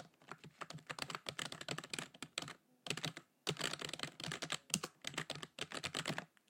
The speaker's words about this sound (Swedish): Och då hade jag det här tangentbordet.